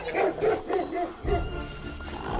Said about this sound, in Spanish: El brazo de Heathcliff está entre los dientes de uno de los perros. El tobillo de Katy está entre los dientes del otro.